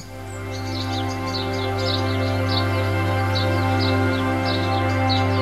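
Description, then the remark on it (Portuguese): Birds chirp and twitter repeatedly, their short high calls scattered over a steady, sustained low drone that runs underneath throughout. “Os pássaros começam a cantar, criando uma sinfonia tranquila da natureza.”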